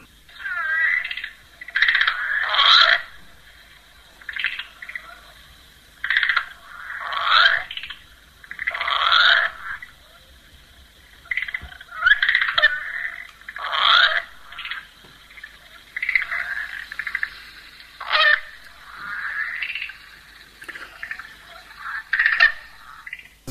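A common river frog (Amiitia angulensis) calls repeatedly in bursts, combining quick clicking notes and a deep, growling rattle in one call, steady over a faint background hum, with no voices.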